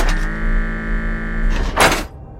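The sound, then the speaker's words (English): A chair drags across the floor with a steady, groaning scrape lasting over a second, then lands with a short, fairly loud thump before the sound cuts off. “I'm going to move the chair so you can see the people in the street outside through the window.”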